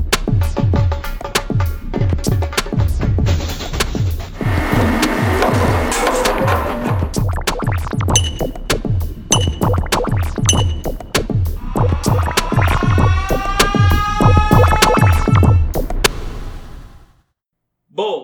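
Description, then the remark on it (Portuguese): A loud radio show jingle with a busy, punchy percussive beat and scratchy textures, then a burst of swooping tonal sweeps before it cuts off abruptly near the end. “Deixe seu comentário sobre qual tema você gosta mais, qual eixo te interessa mais e solta a vinheta.”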